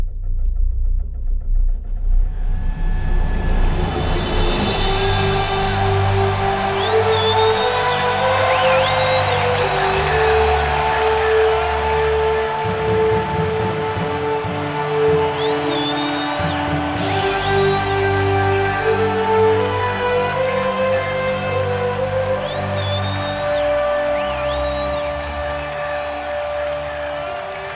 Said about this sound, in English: You hear the roaring crowd and the bombastic yet self important music. That's right, it's February in the United States of America,